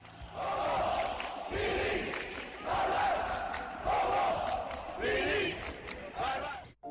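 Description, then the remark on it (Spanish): A stadium crowd at the Hernando Siles stadium roars and shouts in celebration of a goal, a loud, sustained wall of massed voices with repeated surging chant-like swells throughout. “imaginando marcar goles en el estadio Hernando Siles, al estilo de Joaquín Botero o Daniel Pach donde sufría con las derrotas de nuestro más eterno rival y donde celebraba los goles con los gritos de”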